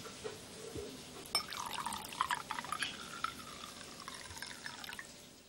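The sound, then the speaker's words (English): Wine is poured into a glass in a steady, gurgling stream lasting a few seconds, with a ringing tone that creeps upward in pitch as the glass fills. No one speaks. “Let me pour some more.”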